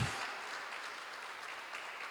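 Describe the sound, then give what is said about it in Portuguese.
Steady applause from an audience applauding Jesus at a night gathering, a dense wash of many hands clapping at an even level throughout, with no voices rising above it. “Vamos aplaudi-lo nesta noite.”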